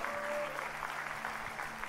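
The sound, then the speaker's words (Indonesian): A church audience claps together for God in steady, dense applause, a continuous wash of many hands with a faint hum of sustained tones underneath. “Come on, berikan tepuk tangan buat Tuhan.”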